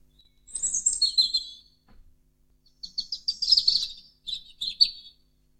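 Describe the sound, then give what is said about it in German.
A small songbird sings delicate, high-pitched phrases of quick twittering notes, two bursts separated by a short pause, clear with no talking. “Also ganz zart ich habe mal eine Umschreibung gelesen, ein kleiner Bach, der im Wald rinnt und über Steine springt.”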